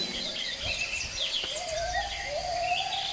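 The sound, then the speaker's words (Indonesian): In the late afternoon, sparrows returning to their nest to rest chirp in a lively, overlapping chorus of high tweets, with a longer whistled call running underneath and no voices. “Saatnya burung-burung pipit beristirahat dan kembali ke sarang.”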